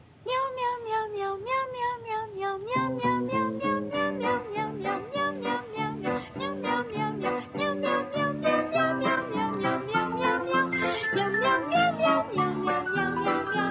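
cats meowing

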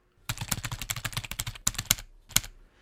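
computer keyboard typing

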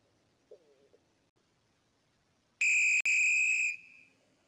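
whistle being blown

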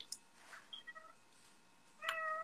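cat meowing

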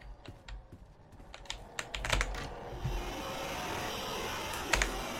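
computer keyboard typing

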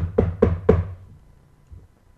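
knocking

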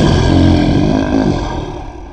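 lion roaring

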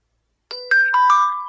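computer notification chime

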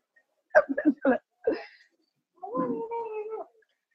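cat meowing

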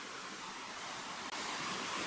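rushing waterfall

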